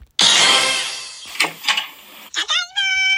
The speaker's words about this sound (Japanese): ではまた、えー、扉を開ける音から行きます。はい。では扉を開けますよ。